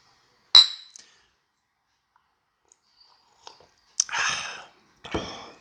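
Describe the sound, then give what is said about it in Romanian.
A bright, ringing clink of whisky glasses touching, followed after a quiet pause by a couple of louder, rattling glassy knocks. Nobody speaks. “O altă săptămână, un alt pahar de whisky, un alt podcast.”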